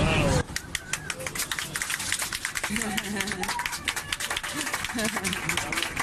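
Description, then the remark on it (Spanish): Passengers on a Ryanair plane break into sustained, dense applause after a young man's marriage proposal to his girlfriend on board is accepted. Many hands clap rapidly for several seconds, with voices and cheers mixed in underneath. “Bueno, ha dicho que sí, por eso eh, estáis oyendo los aplausos oh. de la gente que iba en un avión de Ryanair el pasado jueves”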